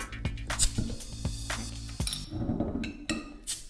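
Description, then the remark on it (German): A glass beer bottle is opened with a bottle opener, with several sharp metallic clinks and taps, then a brief fizzy hiss as the cap comes off. Fairly loud, with no talking. “Brauchst du einen Öffner auch? Bitte. Ich mach's dir auch.”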